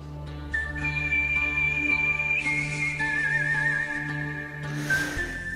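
A clear, sustained whistled melody of long held notes over an orchestral backing with low strings and bells, evoking a spaghetti western film theme.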